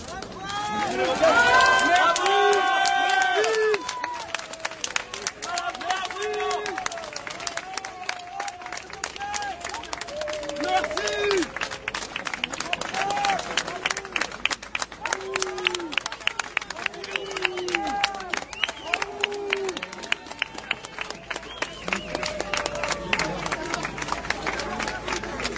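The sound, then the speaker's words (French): A crowd claps steadily for over twenty seconds, a dense patter of many hands, with raised voices calling and shouting over the applause throughout. “Voilà, a qui vont applaudir là, non Ça applaudit ou pas”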